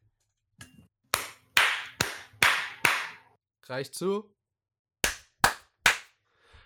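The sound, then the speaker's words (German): Sharp, loud hand claps ring out in two bursts, a steady run of five and then three more, with a brief spoken phrase between the groups; the clapping is done on request to synchronize audio recording tracks. “Ähm, kannst du mal bitte klatschen?”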